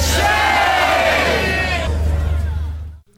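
A large outdoor crowd at a rally protesting anti-Semitism roars and shouts in unison, a loud, sustained wall of chanting and cheering voices that fills the scene before cutting off abruptly.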